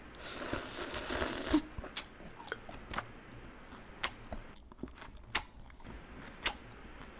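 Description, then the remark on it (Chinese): Someone chewing crunchy bean sprouts: a brief rush of crackly noise, then a string of crisp, irregular crunches and snaps, fairly loud, with no one talking. “你有听到吗？我有这种会嚼的声音。”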